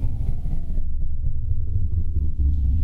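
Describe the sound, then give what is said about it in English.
A very deep, sustained rumbling note, as low as an electronic keyboard can go, drones steadily for the whole stretch, loud, with no voices over it. “You want as low as it can go? Low, well, like low.”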